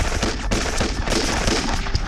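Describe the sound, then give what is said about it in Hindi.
Dense bursts of enemy machine gun fire at dusk, after the enemy blew up a culvert, crackle without pause, rapid overlapping shots forming a loud, steady rattle with sharp cracks standing out. “कुछ ही आगे दुश्मनों ने पुलिया उड़ा दी अभी राणे पुलिया का कोई विकल्प तलाश ही रहे थे कि दुश्मनों की मशीन गने गरजने लगी”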